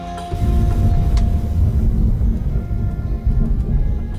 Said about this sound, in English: Whoa, that was like real, real thunder. I might leave that in the podcast.